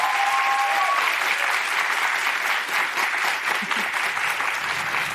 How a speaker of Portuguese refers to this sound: ó ele aí! Aplausos